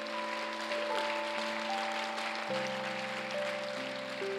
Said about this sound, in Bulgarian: О, ако ще ръкопляскате, ръкопляскайте на бокс.